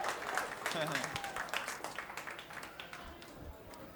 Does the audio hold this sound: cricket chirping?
no